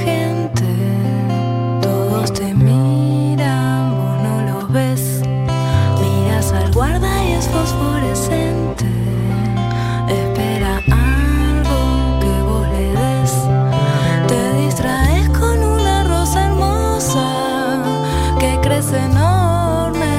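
woman singing a song

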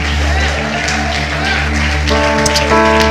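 crowd, audience clapping hands

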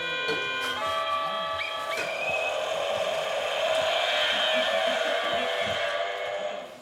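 vehicle, motorcycle passing by

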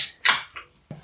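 food or drink, beer can being opened

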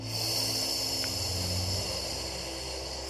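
human body sound, long audible exhale

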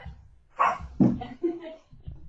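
animal, dogs barking

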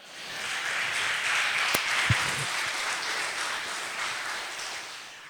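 crowd, audience applauding

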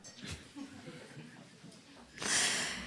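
human body sound, yawn

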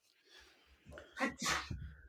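human body sound, sneeze

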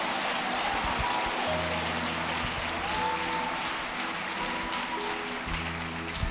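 crowd, audience applause

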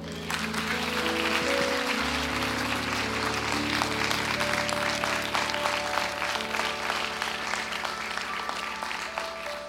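crowd, audience applause

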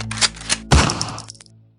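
impact, revolver gunshot

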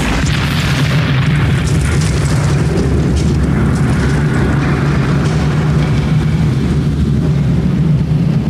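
sound effect, fireworks explosions

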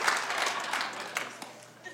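crowd, audience hand clapping

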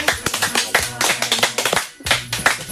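crowd, clapping

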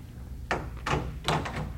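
household object, front door being opened

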